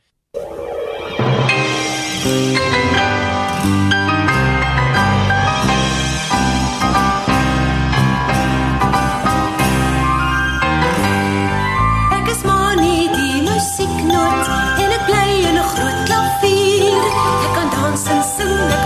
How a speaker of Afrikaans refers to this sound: Sal ons gou eers na 'n bietjie musiek luister? Ja, dit sal lekker wees.